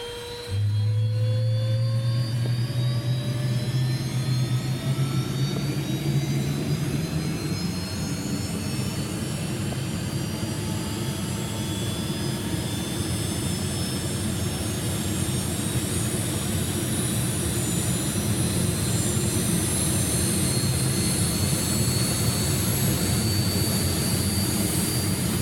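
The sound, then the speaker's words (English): The jet engines of an A-37 Dragonfly aircraft spooling up, a loud steady roar with rising whining tones that climb in pitch over about twenty-five seconds as the turbines wind up, with no talking. “we were talking about how cool the engines sound uh, when they're spooling up in the A37, and uh, you got out there with your recorder and uh, have, a, have a listen to this, guys.”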